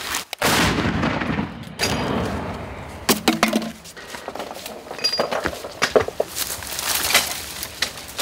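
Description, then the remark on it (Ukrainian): An American artillery gun, used in support of infantry, fires a single loud, booming shot, its roar filling the opening seconds, followed by a series of sharp metallic clanks and clinks. “Це американська гармата, і е, її калібр дозволяє в основному працювати по піхоті і е, такій не дуже броньованій техніці.”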